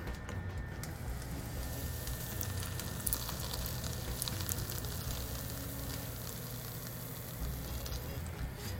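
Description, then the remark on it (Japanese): Pancake batter sizzles softly in sesame oil in a frying pan, a steady, quiet hiss with faint crackles running evenly throughout, with no talking over it. “えー、予定ではもっとシャーっとねいい焼き音が出る予定だったんですけどまあうまいこといきませんね収録なのにね”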